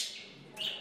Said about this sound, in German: Draußen auf dem Gang zwitschern Wellensittiche in einem Käfig.